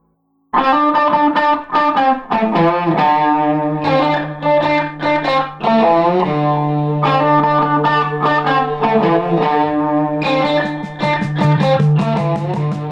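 A blues rock song plays loud, with distorted electric guitar chords over a steady low bass drone, starting abruptly and continuing without any vocals.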